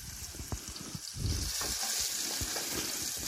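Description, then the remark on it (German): Onions sweat and sizzle steadily in a frying pan, a dense crackling hiss with scattered pops and soft clinks, growing a little louder midway and continuing without any talking. “So, die lassen wir jetzt ein bisschen anschwitzen. Vielleicht sogar so einen Ticken anbräunen.”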